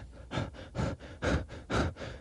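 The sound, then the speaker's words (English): A person imitates the panting and deep, guttural breathing of a bear with about five rhythmic, breathy huffs in quick succession, each rough and throaty, fairly steady in loudness, with no talking. “and I hear off to my right some panting, some deep, you know, guttural breathing. Can you can you mimic it?”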